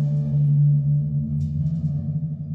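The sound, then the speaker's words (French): A deep, resonant metallic drone rumbles steadily from a huge triangular metal bell-like instrument with many springs stretched out from it, its low tones wavering and shimmering, with faint creaking scrapes rising above it midway. No one speaks. “Le Marvin est une sorte d'immense cloche triangulaire en métal d'où partent une multitude de ressorts”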